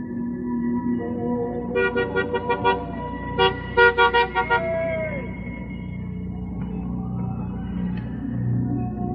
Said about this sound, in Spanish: mientras en Estados Unidos el juez Wakefield sigue conduciendo y buscando entre el tráfico nocturno.